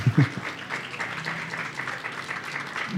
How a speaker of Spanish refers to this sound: Eso es todo lo que tenía para decir. Un aplauso para